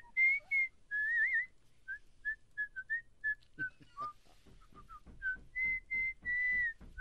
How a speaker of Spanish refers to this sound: ¿Por qué está chiflando, maestro?